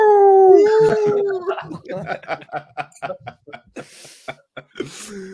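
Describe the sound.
A person lets out a drawn-out, wavering howl in imitation of a dog or wolf, loud, which dissolves into rapid breathy laughter and chuckling.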